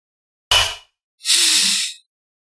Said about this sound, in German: Der, der schnauft schon.